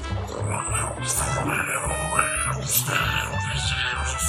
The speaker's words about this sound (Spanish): Pero, a medio camino... Su estómago comenzó a rugir.